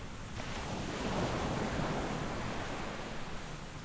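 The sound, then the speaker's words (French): Steady ocean swell with waves surging and washing continuously, a broad rushing roar mixed with wind noise, fairly loud and even throughout with no voices. “Sur le pont d'un navire, il y a souvent de la houle, parfois des tempêtes, qui rendent ces visées difficiles.”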